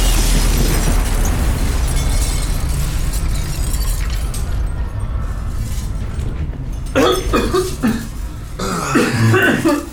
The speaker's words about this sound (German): Ist, ist irgendwas explodiert gerade.